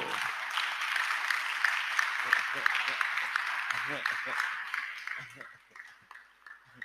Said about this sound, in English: And you at this age, I'm afraid of you. Would you clap for this man of God at all?